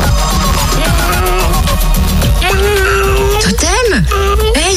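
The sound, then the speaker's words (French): A person in the Fréquence Plus radio studios imitates a cat, letting out a few drawn-out, sliding meows over busy background music, the last ones swooping up and down in pitch. “Euh, ok, d'accord, elle est au poil ton imitation, mais pourquoi tu miaules Parce que je sais pas ronronner.”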